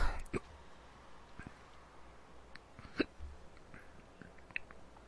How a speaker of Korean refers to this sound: 아 미치겠네. 또 딸꾹질이야.